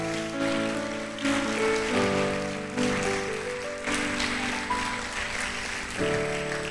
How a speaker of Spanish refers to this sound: Aleluya, vamos, dale un aplauso al rey.